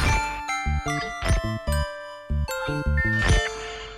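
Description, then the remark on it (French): A short Tsugi Radio station jingle of bright, chiming synth tones over punchy, rhythmic bass hits, played loud with no voices, lasting just a few seconds. “vous avez envie de faire ce soir sur la Tsugi Radio mais on s'envoie un petit une petite virgule et puis je vous retrouve avec … dans quelques instants dans quelques secondes même Tsugi, Radio.”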